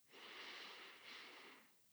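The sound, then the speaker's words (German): A person breathes slowly and deliberately to calm down, a long airy inhale followed by a long exhale, soft and steady with no talking. “Und ich atme jetzt. Ich atme einfach ein und aus.”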